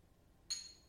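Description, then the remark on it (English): A single bright clink of glasses touching in a toast to the summer, ringing briefly with a clear high tone before fading, against a quiet background. “so yeah it's it's our fucking summer we got this shit and we gonna just keep on pushing cheers”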